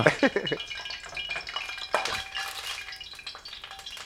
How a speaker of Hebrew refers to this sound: אני אוהב את הצליל. קצת מפחיד, אבל בסדר. למה הורדת את זה? תחליף מחבט, שלא יעשה את הרעשים האלה.